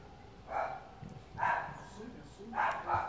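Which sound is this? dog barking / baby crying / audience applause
dog barking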